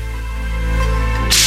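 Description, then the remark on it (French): A single sharp, bright whip crack bursts out near the end, loud, following a steady low droning hum that fills the rest of the moment. “Euh, hop, un petit coup de fouet.”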